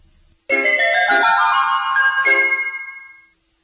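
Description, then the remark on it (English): A melodic electronic alarm clock goes off in the morning, a bright chiming tune of a few notes that rings out suddenly, sustains for about three seconds, then fades away, with no voices. “Getting up in the morning. The alarm goes off, but James is already up.”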